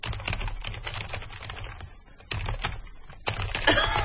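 Rapid, loud clatter of computer keyboard typing, dense bursts of keystrokes close to the microphone with a brief pause midway, no voices over it.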